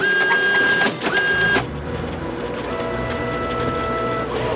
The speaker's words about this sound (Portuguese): A fotocopiadora e a impressora unidas num aparente complô para encher de papéis os escritórios de todo o mundo.